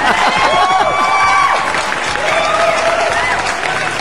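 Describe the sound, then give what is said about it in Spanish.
A crowd applauds Beto Rodríguez steadily for about four seconds, dense continuous clapping with scattered cheers and whistles rising above it, loud throughout. “Aplausos para Beto Rodríguez, que ese güey sí sabe qué pedo con el bullying.”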